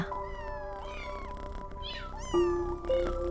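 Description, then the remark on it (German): Several cats meow in overlapping, wavering calls, clear, with a louder, sustained meow near the end over a low continuous rumble. “Weich und kuschelig schmiegen sie sich an deine Beine und schnurren, was das Zeug hält.”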